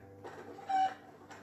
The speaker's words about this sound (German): Ich habe jetzt mal meinen Huhn mitgebracht. Ich weiß nicht, ob das erlaubt ist.